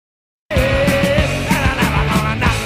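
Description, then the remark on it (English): After a moment of silence, a loud punk rock song bursts in at full volume, with driving drums, steady pounding beats and a thick wall of guitar. “And come up with a tune called "…."”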